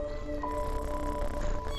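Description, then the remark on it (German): A white cat with bright blue eyes, standing with its front paws on someone's legs, meows insistently in one sustained, whiny call lasting nearly two seconds, moderately loud, with no one talking. “Du kniest dich nieder und schon steht eine von ihnen mit den Vorderpfötchen auf deinen Beinen und maulst dich frech an.”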